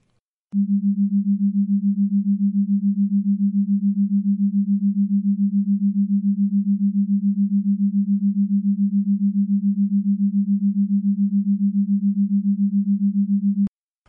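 A binaural beat meant for headphones, with one tone in the left ear and another in the right: a steady, low pure tone hums alone for about thirteen seconds with a gentle, regular wavering pulse, starting and stopping abruptly with no voices.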